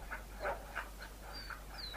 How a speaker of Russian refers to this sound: Он осторожно вынул изо рта собаки мокрый от слюны платок, но Нептун вдруг застыл. Поднял голову вверх и громко два раза залаял. Забеспокоились и другие собаки